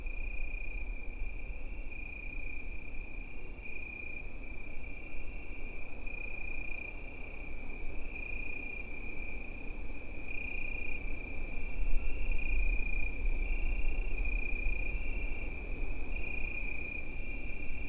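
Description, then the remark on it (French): A steady, high-pitched Italian cricket trill on a summer evening runs unbroken for the whole stretch, with a faint pulsing shimmer, over a low rumbling background hum. No voices are heard. “Le grillon Italie, ça c'est typiquement l'ambiance des soirs d'été.”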